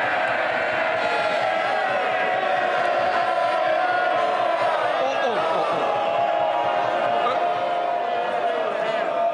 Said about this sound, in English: Uh, big cheers, there for Boris Johnson.